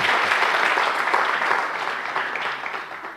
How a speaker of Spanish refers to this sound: Pueden dar un aplauso. Buen momento para un aplauso.